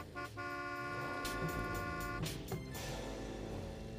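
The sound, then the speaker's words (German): A short test-drive segment jingle opens with a sustained car horn honk over a busy, rumbling musical backing, followed by a second brief toot before the sound settles into a steady mix for several seconds. “Ich muss schnell den Jingle suchen, ich weiß leider nicht mehr auswendig.”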